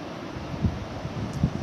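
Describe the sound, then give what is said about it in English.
A steady, hissing wash of ocean surf rolling onto the shore, heard from about 20 feet from the shoreline, continuous and moderately loud with faint low thumps underneath and no voices. “I'm sitting on a log about 20 feet away from the shoreline, just watching as the waves come in.”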